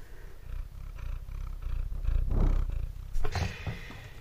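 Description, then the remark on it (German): A tomcat named Blackie purrs steadily, a low rumbling throb pulsing in an even rhythm, swelling slightly in the middle, with a brief brighter scuffle of noise near the end. No one speaks. “mein Kater sitzt hier gerade so schön und könnte das Gerät umschmeißen”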